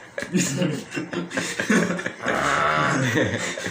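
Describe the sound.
A voice imitates snoring as background sound for someone pretending to sleep, with rough, growly, rasping breaths, the last stretch a long sustained buzzing snort after shorter choppy bursts.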